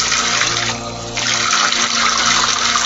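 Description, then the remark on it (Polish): Water runs steadily into a clogged sink, a loud, continuous rushing splash that briefly softens in the middle before surging again. “ale ci już woda z tego została, bo muszę, muszę kurde kupić jakiegoś przetykacza i zrobić tutaj małe przepchanie zlewu.”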